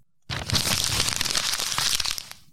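Wrapping paper being crinkled and crushed as a mundane ASMR video task, a dense, continuous crackle of bright rustling that fills about two seconds at steady loudness before stopping abruptly, with no voices.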